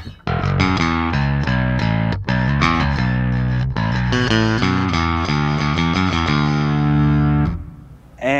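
An electric bass guitar with a jazz bass tone plays a busy, melodic line of sustained notes, bright and growly with some grit, loud throughout before a brief pause near the end.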